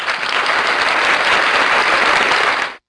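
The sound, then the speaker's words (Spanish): A burst of applause, dense and steady clapping from a crowd, holding at full loudness for almost three seconds before cutting off abruptly. No voices are heard. “Otro beso. Otro aplauso.”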